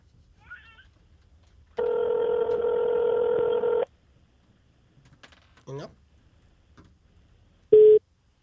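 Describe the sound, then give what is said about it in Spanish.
A telephone rings once with a long, steady buzzing tone lasting about two seconds. After a quiet gap with faint scattered sounds, a brief higher beep follows. “Ay, ya suena. Déjame trabajar. Está sonando.”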